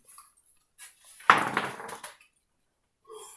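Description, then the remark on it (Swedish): A die clatters across a hard tabletop, a sharp initial clack followed by a quick flurry of small rattling bounces that fade out within a second, with faint soft knocks before and after. “Vi slår med samma tärning.”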